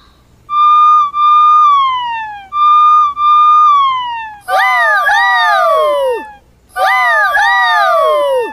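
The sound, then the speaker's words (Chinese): The siren of Xiaohong (Little Red), a new red fire engine at a fire station, wails in two long, slowly falling tones, then breaks into louder, rapid rising-and-falling yelps in two bursts with a short gap between. “你看到一辆红色的消防车了吗 ？”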